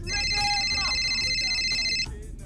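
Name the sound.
phone ringing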